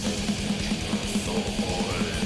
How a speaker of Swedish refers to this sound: Och nu blir det dubbelpedal.